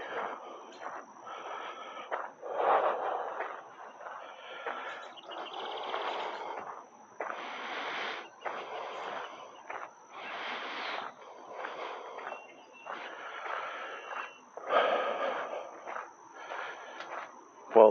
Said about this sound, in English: And um, can I filter out the breathing in the cars automatically?